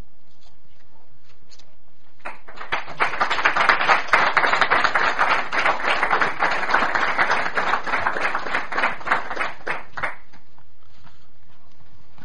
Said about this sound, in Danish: Det er jo øh, helt uvandt sådan at blive klappet ind. Men øh, tak for det.